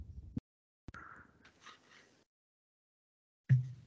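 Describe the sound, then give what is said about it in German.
Quiet scratching of a pen moving across a slip of paper in a short burst of strokes, framed by a few soft knocks and bumps before and after. “Ja, ich höre, wie du schreibst.”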